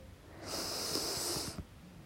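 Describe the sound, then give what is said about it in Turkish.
A single long, deep breath drawn in through the nose, airy with a hissing, slightly snorting rush lasting about a second before it stops. No one speaks. “O yüzden tadını çıkar, nefes alışının tadını çıkar.”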